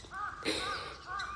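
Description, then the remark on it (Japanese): A crow caws harshly several times in quick succession, the rough calls moderately loud with an open-air quality and no one talking, in a quiet spot in Shinshu, Japan, on a misty morning. “はい、そして今ですねとっても周りが静かなんですねあの鳥の鳴き声とあともう誰も周りに誰もいないので なんかあんまり大きい声出しちゃいけないかななんて思うようなはい静かなところです鳥の鳴き声とか聞こえますでしょうかねえっ、ー、とこちら信州あカラスは結構大きい声でどこでも鳴いてますね”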